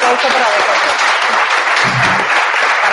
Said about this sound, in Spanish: Valientes, que no se muerden la lengua. Así que un aplauso para las de hoy